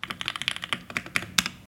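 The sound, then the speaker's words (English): Rapid typing on a mechanical keyboard, a steady run of crisp, clacky keystrokes, with one sharper key strike near the end and no voices. “Quite frankly, why would you want your keyboards to sound like this when it could sound like this?”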